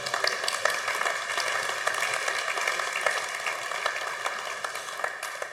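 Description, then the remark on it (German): Audience applause fills the whole stretch, a dense, steady wash of many hands clapping at an even level, with no voices rising above it. “Komm, einen Applaus dafür, ja?”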